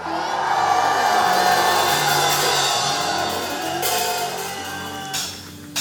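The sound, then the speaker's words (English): A large crowd at a preaching service erupts in loud, sustained shouting and cheering at the preacher's call, a dense roar of many voices calling out hallelujah together that holds steady for several seconds, with a few sharper whoops near the end. “a loud shout of hallelujah.”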